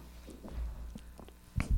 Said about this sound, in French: Montre-moi comment tu bois pour que ça fasse tout le temps ce son-là. Non, mais je fais exprès, là. Je fais exprès, là, Parce que je peux boire sans que ça fasse du bruit, là.